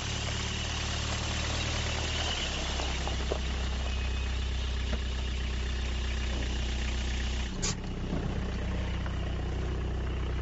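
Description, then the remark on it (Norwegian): A car loaded full of gear for turning a washing machine into a scalding vat idles steadily with a low, constant rumble and faint vibration, with a brief clunk near the end; no one speaks. “Nå har jeg lasta bilen full av det jeg trenger nå for å lage dette karet. Så skal vi kjøre ut til garasjen, eller verkstedet, og se om vi kan få gjort noe.”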